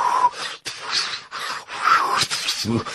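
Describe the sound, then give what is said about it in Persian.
A voice makes a breathy, whooshing imitation of wind blowing, with rising and falling airy gusts and faint whistling tones, moderately loud over about three seconds. “صدای باد در میارم اضافه کاری”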